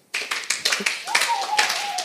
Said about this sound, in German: Ihr dürft heute noch ein paar Mal klatschen.